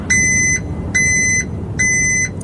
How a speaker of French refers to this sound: Eh oui, c'est un camion ah, qui recule. Le camion de recul.